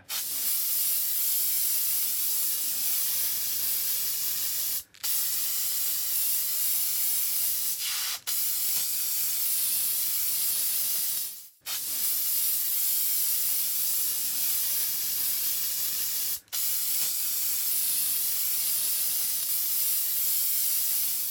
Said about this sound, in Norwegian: Inne på badet sprayer den nakne mannen deodorant under armene sine.